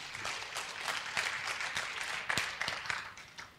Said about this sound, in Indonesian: Tepuk tangan untuk kebenaran ini.